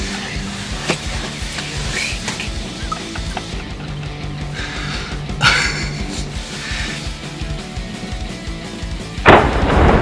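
A loud, sharp shotgun blast booms out near the end, shooting and killing a turkey on a morning turkey hunt, after several seconds of rustling outdoor ambience with a few smaller thumps and crackles.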